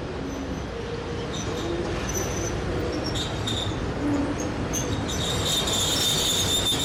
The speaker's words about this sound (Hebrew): הרכבת מאודסה הגיעה, אבל אין לנו אפשרות להתקרב לרציף.